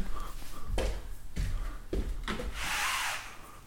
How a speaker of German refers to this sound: Ich habe keine Ahnung, wo das herkommt. Von den Baustellen?